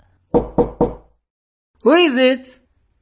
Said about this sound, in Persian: صدای ضربه ملایم و محتاط بر در ورودی او را بیش از پیش می ترساند.